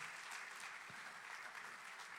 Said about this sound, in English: But here in Tallahassee, can we just shake Tallahassee real quick? Can we give our fearless leaders a round of applause?